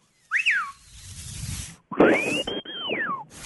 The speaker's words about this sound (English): it's your lips sliding on your teeth back and forth that adjusts your tone in your whistle.